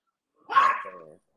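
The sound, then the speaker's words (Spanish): A small female dog lets out one sharp, fairly loud bark, trailing off into a short whiny, tonal yelp; there is silence before and after, with no talking. “ahí salió tu perrita”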